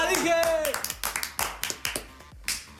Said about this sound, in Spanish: Uh, aplauso para el ingeniero